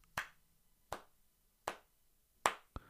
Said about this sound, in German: einfach mal klatschen.